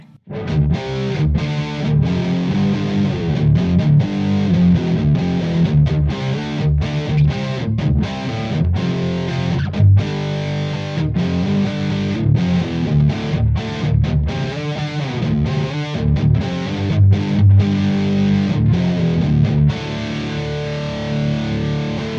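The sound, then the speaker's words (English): A distorted electric guitar played through a chorus pedal in stereo plays continuously with a shimmering, doubled chorus effect, chords ringing loud with brief choppy gaps between strums. “let's turn that course on. On the stereo.”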